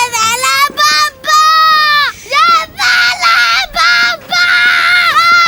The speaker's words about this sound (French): C'est-à-dire que, par exemple, si je te dis, est-ce que tu connais le spot de l'enfant qui crie...